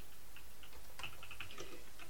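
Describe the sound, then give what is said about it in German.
Quick, irregular clicking of keys on a computer keyboard as someone types a text command, fairly quiet, with a slightly busier burst of keystrokes in the middle. No one speaks. “Genau, ich wollte jetzt Schlüssel nehmen, aber ich habe natürlich erst angefangen zu tippen, nimm.”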